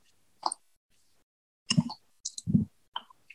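Sharp clunks and knocks of a microphone being unplugged and rattled, in a few irregular bursts with brief quiet gaps between, no one speaking.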